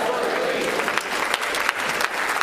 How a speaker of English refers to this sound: Would you clap your hands unto the Lord with praise and thanksgiving, for he is worthy of all the glory. If you're thankful to be in church, why don't you clap your hands?